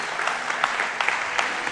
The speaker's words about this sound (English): If you believe that today, give the Lord a hand clap. Amen, amen, amen, amen.